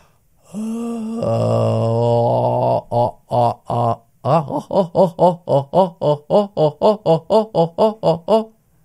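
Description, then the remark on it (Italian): A lone voice does a low-larynx vocal warm-up exercise, singing a deep, dark, yawn-like "oh" vowel, holding it for about two seconds, then repeating it as a quick, even run of short staccato pulses, clear. “Suoni dalla ringe bassa, io sto producendo una O, ma potresti produrre qualsiasi vocale tu voglia, ma vado a produrre dei suoni qui che vanno un po', eh, è un esercizio lungo, 10 minuti, 15 minuti,”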